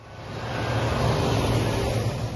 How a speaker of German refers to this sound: Eine Militärkolonne fährt durch Tanzfleck, einem kleinen Ort am Rande des Truppenübungsplatzes. Die Soldaten winken uns zu, sie hupen sogar.